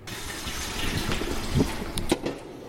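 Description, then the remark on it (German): Tap water runs steadily into a cooking pot, filling it with water for potatoes, a continuous rushing splash, with a couple of brief knocks or clinks toward the end. “Wir haben gerade Wasser für die Kartoffeln aufgesetzt”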